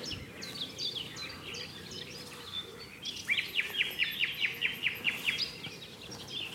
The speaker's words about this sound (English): There's a there's a bird here that's really buried.